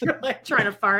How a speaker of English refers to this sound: You're like co- you're doing that. You're like coughing to mask the sound.